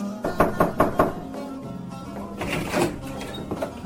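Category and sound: household object, knocking on a door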